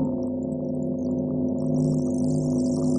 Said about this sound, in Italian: Consiglio, fortezza, scienza, scienza, e questa scienza ti vuole negare, come questa campana che suona lontano. Noi la sentiamo suonare.